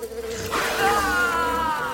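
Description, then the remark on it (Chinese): A pumpkin bee robot buzzes steadily for about two seconds, a rich, droning hum whose pitch wavers and slowly drifts, holding loud and even with no voices. “正当 QQ 力霸王要靠近倒地的南瓜巨龟兽的时候，突然间，QQ 力霸王的背后出现了南瓜蜜蜂机器人，准备偷袭过去。”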